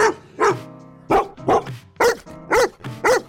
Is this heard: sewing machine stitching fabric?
no